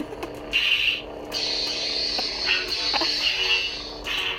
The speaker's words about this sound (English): What you just heard is two full grown men, sword, uh, oh my gosh, I almost said sword battle. I want Laser death threats, guys. Uh, two grown men lightsaber battling.